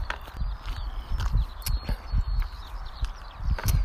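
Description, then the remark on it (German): Steady footsteps walk at an even pace along the edge between a meadow and asphalt at the edge of a track. Each step is a crisp crunch or thud, alternating between soft grass and harder asphalt, with no talking. “Jetzt gehe ich wieder zurück an den Rand der Bahn und äh, gehe jetzt einfach an der zwischen Wiese und Asphaltkante entlang.”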